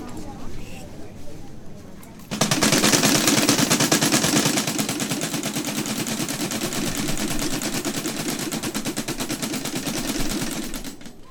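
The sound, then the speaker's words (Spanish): After a brief quieter stretch, blasts of a camareta, a resonating wooden box used in place of church bells by the Catholic Mojeño community, erupt suddenly into a loud, rapid, crackling barrage of explosive bangs, sustained almost unbroken, like machine-gun fire, until the end. “Este breve fragmento de paisaje sonoro cierra con este estrondoso sonido de la camareta.”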